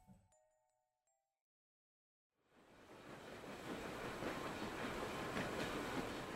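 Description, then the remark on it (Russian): After a brief faint sound and a couple of seconds of silence, the rumble of a train departing London's King's Cross station for Scotland swells up and holds steady, a dense rolling roar of rail cars moving along the track. “Двое очень юных молодых людей, которым не было еще и двадцати, Питер Джеймс Роулинг и Энн Валант, мерзли в купе поезда, отправляющегося в Шотландию, со станции Кингс-Кросс в Лондоне.”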